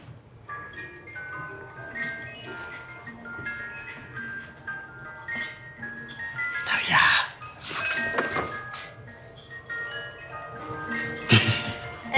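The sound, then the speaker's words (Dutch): A key-wound cuckoo clock mechanism, fully wound and set going by pulling out a pin on its side, runs with a steady ticking, joined by a few louder mechanical clunks and whirring bursts partway through and near the end. “Hij is nu al helemaal opgewonden. Dus het enige wat ik nu nog moet doen is hier aan de zijkant zit nog een pinnetje.”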